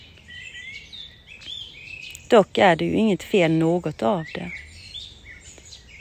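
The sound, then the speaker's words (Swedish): Birds chirp and twitter continuously in the open air, small high calls overlapping throughout, while a person speaks briefly in the middle, the birdsong carrying on quietly underneath. “Lyssna in fåglarna.”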